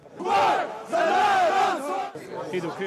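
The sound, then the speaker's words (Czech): A large protest march crowd in Zagreb, Croatia, marching against tightening restrictions, chants loudly in unison, two long sustained shouted phrases followed by a looser, quieter stretch of mixed voices and cheering. “Chorvatským záhřebem prošel mohutný pochod proti stále se utahujícím šroubům.”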